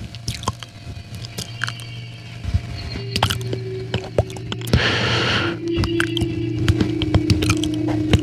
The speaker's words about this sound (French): Quand je suis enrhumé, ça fait un son un peu particulier, on peut entendre les clics de bouche qui vont comme ça.